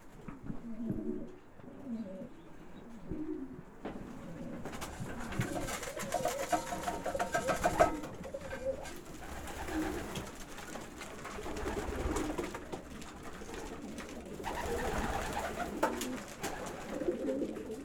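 bird, pigeons cooing

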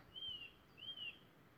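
bird, birdsong

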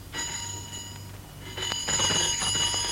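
household object, intercom buzzer ringing

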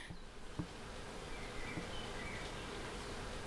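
insect, bees buzzing

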